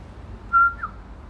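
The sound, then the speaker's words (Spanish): A short human whistle used as a family's identifying call: one steady held tone followed by a quick upward-bending note, clear over a low background hum, with no talking. “Y yo soy la única que puede chiflarle ah. así como chiflaba mi papá.”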